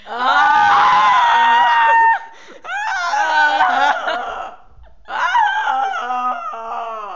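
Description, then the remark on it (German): Loud screaming in three sustained bursts, the first the longest and most piercing, separated by brief gaps, with a strained, shrill, almost crowing quality and no other sounds. “Wir können auch einen Schrei-ASMR machen, so ist nicht.”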